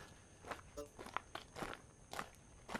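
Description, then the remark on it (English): Steady boot footsteps crunch along outdoors, about seven or eight steps in an even walking rhythm, moderately loud over a faint background hiss. “You can hear my boot steps.”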